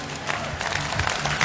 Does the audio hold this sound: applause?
yes